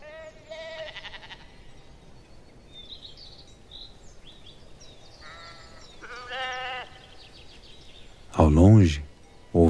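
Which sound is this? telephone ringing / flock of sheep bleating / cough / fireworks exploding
flock of sheep bleating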